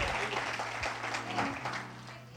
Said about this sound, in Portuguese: Isso, aplauda mais forte a Ele. Aleluia!